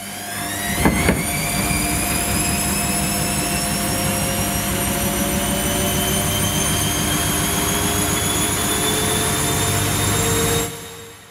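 Loud, continuous industrial machinery roars in a factory, a dense mechanical rumble with high whining tones that slowly drift in pitch, a brief clunk near the start, then it cuts off abruptly.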